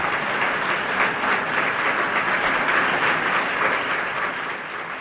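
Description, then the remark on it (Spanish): Sustained applause from a large audience in the Teatro Infante Leonor on the morning of Passion Sunday, after a band plays the processional march Margot, a work by Joaquín Turina; the director applauds his musicians. A dense, steady wash of many hands clapping that tapers slightly toward the end, with no voices. “Aplaude el, director a, sus componentes, a sus músicos.”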